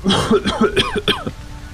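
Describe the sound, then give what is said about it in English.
A man coughs in a rapid, hacking fit, fairly loud, with about seven or eight harsh bursts in quick succession before trailing off into quiet. “He coughs”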